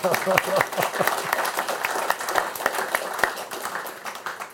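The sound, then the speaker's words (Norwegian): An audience breaks into steady applause, dense overlapping claps sustained for several seconds at a fairly loud, even level, with a few voices mixed in at the start. “Får jeg applaus til det, da.”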